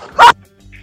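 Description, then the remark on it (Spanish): A single sharp dog bark rings out loud, short and abrupt, followed by near silence with a faint low hum. “¿Qué un ladrido, no sé qué pasó.”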